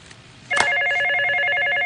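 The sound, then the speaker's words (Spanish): A cordless telephone starts ringing abruptly after a short quiet moment, a sustained electronic warble with rapid pulsing tones, loud, continuing steadily to the end. “Suena el teléfono inalámbrico y luego comienzan a sonar todos a la vez.”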